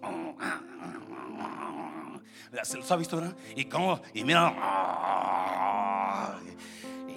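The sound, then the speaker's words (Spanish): A man's voice imitates two dogs growling and snarling over a bone or piece of meat: short rough bursts, then a longer sustained growl, loud, with a few spoken words before it. “Que están dos ahí y está el hueso ahí o el pedazo de carne, la tortilla y van los perros.”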